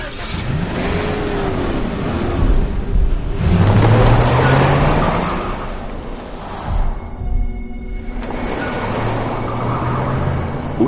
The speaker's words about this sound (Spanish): Víctor arranca el coche mientras Nora lo contempla pasmada.